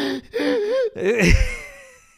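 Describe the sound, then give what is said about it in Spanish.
A voice imitates sobbing, with wavering whimpering cries broken by sharp, spasmodic gasping breaths, then a heavy shuddering exhale that fades out. Fairly loud. “Ese que viene con la respiración espástica, todo eso, como.”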